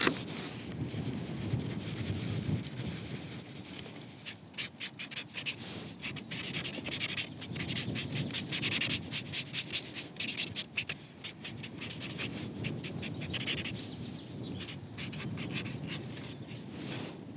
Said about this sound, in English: I'm using a Tombow marker now just to bring out a bit more of the flower.